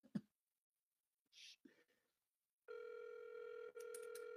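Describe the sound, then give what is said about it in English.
A few soft clicks and rustles, then the loud, steady electronic ringing tone of an outgoing phone call comes in and holds for almost two seconds with one tiny break, heard alone without any talking. “Come on, man. Pick up the phone, man.”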